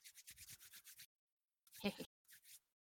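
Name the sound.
hands rubbing together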